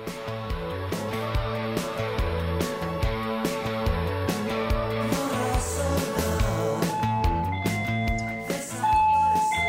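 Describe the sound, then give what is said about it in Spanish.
A doorbell plays a long, bright melodic chime tune during a live radio broadcast, with repeating notes in a steady rhythm that fill the space for several seconds before ending on sustained tones. “Un segundo les voy a pedir, porque esto es radio en vivo, voy a abrirle la puerta”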